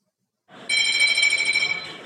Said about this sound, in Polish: A moim gościem, słyszycie Państwo dzwonek, jest prosto z Sejmu poseł Koalicji Obywatelskiej Michał Kołodziejczak.